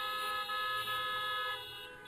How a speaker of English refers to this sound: for those of you online, you probably couldn't hear me say that because of the great honking that's going on here. Never thought I'd say that from the stage.